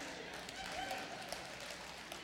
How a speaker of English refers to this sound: While they're clapping, let's receive an offering.